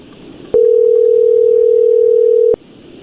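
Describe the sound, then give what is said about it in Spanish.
A telephone ringing tone: one steady, mid-pitched electronic tone holding for about two seconds, then cutting off, over a faint background hiss with no talking. “Ahí está la llamada, no hay ruido.”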